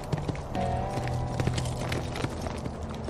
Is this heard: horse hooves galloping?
yes